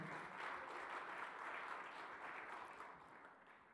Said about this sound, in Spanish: Denle un aplauso fuerte.